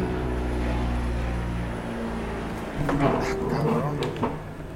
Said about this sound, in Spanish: Bueno, una disculpa, pasó un pinche helicóptero muy, muy... seguramente lo están escuchando.